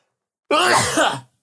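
A single loud sneeze bursts out of silence with a sharp, breathy onset and a brief voiced tail, lasting under a second before quiet returns.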